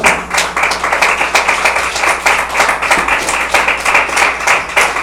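A crowd claps steadily throughout in applause to the Lord, many hands striking in a dense, continuous patter with a loose rhythmic pulse, fairly loud and without voices.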